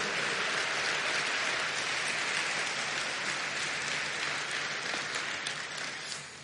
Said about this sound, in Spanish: Aleluya. Dele palmas, dele palmas al Señor por eso.